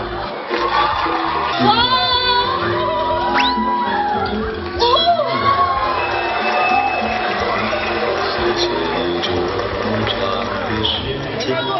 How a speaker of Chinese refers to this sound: 咱们就正常的亲，我跟你讲，咱们亲不断，他们就一直鼓掌。他们要停，他们就输了。